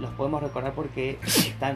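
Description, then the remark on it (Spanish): A single loud, sharp sneeze bursts out in the middle of someone's steady talking, then the speech carries on right after. “Salud. Perdón.”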